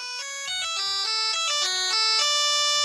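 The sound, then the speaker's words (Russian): An even older version of an older-style mobile phone ringtone plays a quick synthetic melody of stepping electronic tones, loud, with no voices over it. “Сегодня хочу спросить, на телефонах какой марки стоял вот этот рингтон.”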